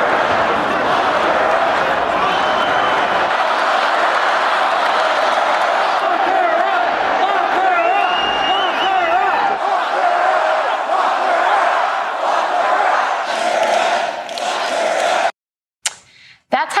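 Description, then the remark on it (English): A large crowd of Donald Trump supporters during his 2016 campaign chants the slogan "lock her up" about Hillary Clinton in unison, a loud, sustained roar of many voices with rhythmic rising shouts, continuing for about fifteen seconds before cutting off abruptly. “His supporters answered any mention of Hillary Clinton with a loud stadium chant, lock her up.”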